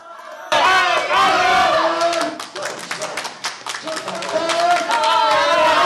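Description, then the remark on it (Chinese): A crowd of supporters of legislator Chen Po-wei shouts loud, rhythmic encouragement ("jiayou") in unison as he visits Yong'an Temple in Shalu, Taiwan; repeated chant-like cries with scattered clapping underneath, starting abruptly and staying loud throughout. “立委陈柏惟到沙鹿永安宫参拜，支持者高喊加油，为他打气。”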